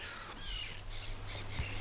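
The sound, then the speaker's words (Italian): Several harsh seagull cries ring out in quick succession, fairly faint, over a steady low rumble in the background. No one speaks. “sentite gli uccellini, che sono uccellini di mare, quindi gabbiani magari o giù di lì”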